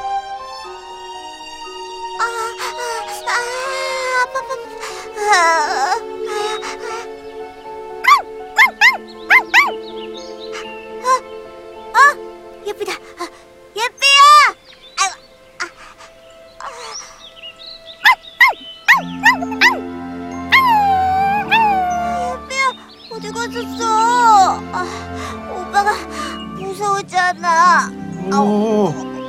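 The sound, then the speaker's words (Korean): A dog barks urgently in sharp, repeated bursts mixed with whimpers and yips, loud, over a busy musical background, barking while looking toward one direction. “아이 강아지가 하도 짖길래 와봤는데,”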